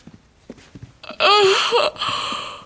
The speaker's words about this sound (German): war das etwa ein Gähnen? Hey, zum Schlafen haben wir heute keine Zeit.